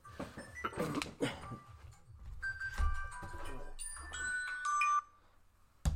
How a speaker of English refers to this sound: I guess my alarm should be shut off a little. I should change it. Um, but that's like a five minute warning.